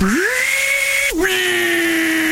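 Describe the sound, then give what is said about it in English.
A table saw whirs up to a loud, steady high-pitched whine, dips sharply as it bites through material halfway through, then keeps running with no voices. “Table saw.”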